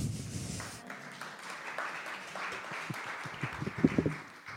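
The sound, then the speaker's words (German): An audience at a church service clapping together after a Bible text reading, a steady patter of many hands lasting several seconds, with a few sharper, louder claps standing out toward the end. Nobody speaks. “Ich finde, diese großartige Textlesung ist ein Applaus wert.”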